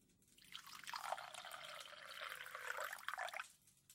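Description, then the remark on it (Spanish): Water is poured into a cup to make coffee, in one steady, continuous stream lasting about three seconds, soft, with no voices. “Agua.”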